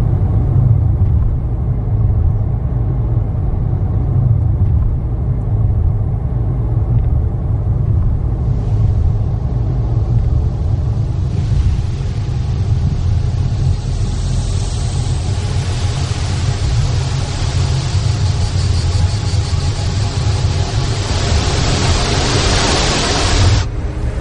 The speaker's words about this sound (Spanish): Al día siguiente viajan por la carretera de camino a casa. Irene conduce el coche y observa a sus sobrinas por el espejo retrovisor.